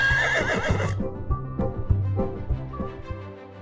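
A horse gives one loud whinny lasting about a second, followed by a steady, low rhythmic thumping that continues for a few seconds without any voices.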